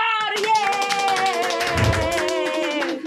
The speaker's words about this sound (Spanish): Si solamente aplaudes tú, entonces estamos probados.